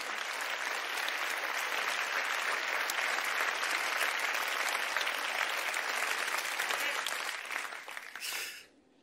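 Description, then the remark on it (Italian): Sustained audience applause, a dense steady wash of many hands clapping at even loudness for about eight seconds, then tapering off quickly at the end. “un applauso.”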